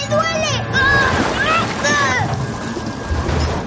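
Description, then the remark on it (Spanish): A submerged car with a person inside sinks amid steady rushing, churning water noise, while a strained voice cries out over it during the first couple of seconds, then only the watery roar continues. “El coche se hunde en el agua.”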